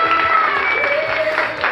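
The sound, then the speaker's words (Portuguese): A short burst of steady crowd applause, dense and fairly loud from start to finish, with a few faint tonal whistles or cheers mixed into the clapping. “Ah, merece salva de palmas mesmo.”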